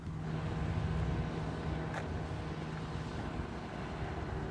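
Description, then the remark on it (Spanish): A wooden motorboat, a chanela typical of the area, drones steadily as it comes back across the ría, a low continuous hum under broad wind and water hiss, with one brief sharp tick partway through and no voices. “La barca, una chanela típica de aquí, una, barca de estas de madera a motor, que antes, eh, cuando estaba grabando kilómetros de balde, pasó por debajo de mí estaba cruzando la ría, aquí viene de vuelta la barca.”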